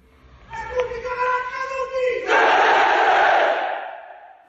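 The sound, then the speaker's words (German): A large crowd of black-clad Fratelli d'Italia party members shouts in unison, answering a leader's roll call asking whether party comrades are present, while raising hands in the Roman salute: first a drawn-out sustained call with steady tones, then a loud massed roar that swells and fades after a few seconds. “Er fragt, ob seine Parteigenossen anwesend sind. Und die antworten.”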